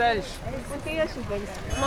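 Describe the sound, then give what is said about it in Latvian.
A tractor engine rumbles with a steady low drone during a pilgrimage, while voices talk over it throughout. “Jā, traktors kā jau svētceļojumā, jā, traktora skaņu efekti radio klausītājiem, mm, bet eh, spītējot traktora skaņā mēs turpinām sarunu”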